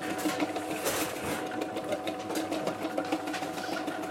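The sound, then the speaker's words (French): A vegetable cutting machine runs steadily, its rotating blade underneath coarsely chopping squash for a vegetarian couscous in a canteen preparing 1000 meals at a concert event, giving a continuous whirring, buzzing motor drone with a rough, chopping texture and faint clatter throughout. No one speaks. “C'est le dernier bac de courge là as une lame qui tourne en dessous, ça découpe grossièrement les légumes C'est un couscous végé.”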